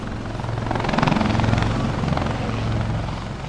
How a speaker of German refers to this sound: In Stralsund knattert ein Hubschrauber über die Köpfe der Besucher hinweg.